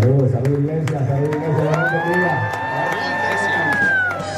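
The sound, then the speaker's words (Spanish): A large crowd of young people in Miami cheers and shouts steadily and loudly as Yankee arrives to preach, with one long, high sustained whoop rising above the roar midway and holding before it fades. “Escucha cómo lo recibían.”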